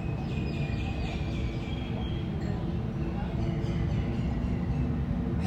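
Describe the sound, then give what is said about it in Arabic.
A surveillance drone buzzes very close overhead, its terribly loud, steady low drone humming without a break for the whole stretch, with faint thin whining tones riding above it. “صوت الزنايات رهيب قريب جدا جدا جدا يحس انه مش بشوف حركتي بشوف افكاري واكتر من طيارة في المربع مش عارفة بس مش قادرة اميز في كثير صوت”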